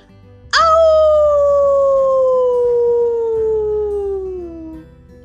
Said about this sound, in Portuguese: Se um uivo horripilante você ouvir